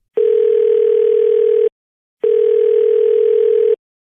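A telephone rings with an incoming call, two long, steady electronic tones separated by a short pause. The tones are loud, and no one speaks.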